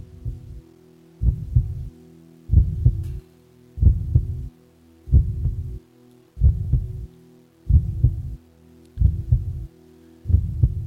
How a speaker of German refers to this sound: Und du siehst hinten ein Bild und links und rechts ist Mutter, der Vater und Mitte ist die Frau, die 39-jährige Frau, die ein neues Herz hat. Und Mutter geht mit ihren Ohren an die Brust her und sie hört folgendes Geräusch.